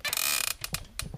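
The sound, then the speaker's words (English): A chair creaks loudly as a person shifts position side to side, a long grinding squeak followed by a few shorter creaks and clicks, with no one talking. “how about if you go side to side a little bit Side like to side.”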